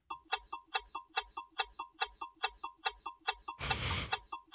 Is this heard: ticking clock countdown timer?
yes